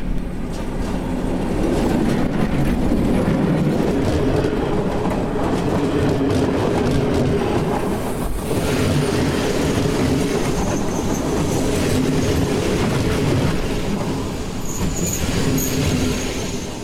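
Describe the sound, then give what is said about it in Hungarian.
A rattling push-pull shuttle train in Hungary rumbles past on the tracks, steady and loud for the whole stretch, with rhythmic wheel clatter and a faint metallic squeal near the end. “És mindeközben pedig robog lefel a következő csörgős inga vonat Lajos Misér.”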